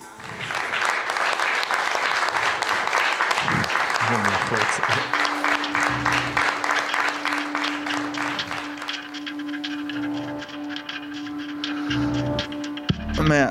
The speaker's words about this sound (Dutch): En hij zingt hier, rapt met zijn kleinzoon. En iedereen moet gewoon klappen. Dat is de bedoeling.